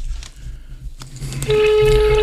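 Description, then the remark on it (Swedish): A few faint clicks over a low hum, then a steady telephone tone comes in halfway through and holds. It is a continuous mid-pitched buzz with a slightly harsh edge from an ordinary phone handset held up to the studio microphone to call the head of MTG Radio. No one speaks. “Vi ska se, nu slår jag på den här, måste slå på min vanliga lur här så håller vi upp den mot mikrofonen.”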